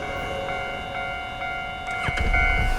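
A Tze-Chiang express train rolls past by the roadside with a steady low rumble and sustained whining tones, swelling louder toward the end as rattling clatter joins in. No one speaks.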